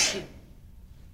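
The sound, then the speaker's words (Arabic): A single sharp sneeze bursts out at the start, a hissy, breathy blast that fades within a fraction of a second, leaving only a faint low hum behind. “يرحمك الله”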